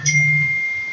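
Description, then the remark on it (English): A steady electronic tone from the speaker's mobile phone sounds for about a second, with a low buzzing hum beneath it at the start. It is fairly loud, and nobody speaks. “Oh, that's my phone.”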